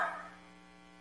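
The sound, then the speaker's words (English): A single short, gruff growling burst from a human voice imitating a wolf, loud at the onset and trailing off quickly into a faint, steady hum within about a second. “A wolf will howl and growl.”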